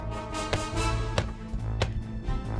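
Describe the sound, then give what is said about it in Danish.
Three crisp footsteps from pointed shoes click at a steady, unhurried pace in dark, heavy weather, heard from a garage, over a low, droning musical backdrop, each step sharp and distinct. “Jeg kan høre nogle skridt og spidse sko.”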